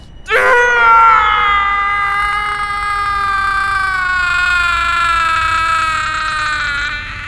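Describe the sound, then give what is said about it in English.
A man's single loud, drawn-out dying scream of agony that starts suddenly and holds for several seconds, slowly sagging in pitch as it strains on, with no other voices around it. “last scream made the gods very happy. That shriek lingers in my thoughts, echoing through every moment of my life.”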